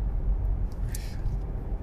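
Steady, low rumble of road noise inside a moving car, a continuous dull drone filling the whole moment with no clear breaks or other distinct sounds.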